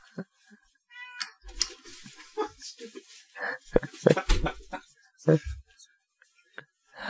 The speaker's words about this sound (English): I think my cat is trapped in the room